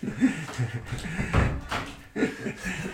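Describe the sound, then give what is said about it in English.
A door swings shut with a dull, solid thud partway through, fairly loud, with faint voices murmuring in the background before and after. “I'll, I'll close the door.”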